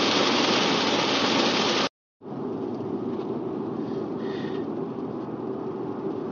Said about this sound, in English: Holy crap, it's raining!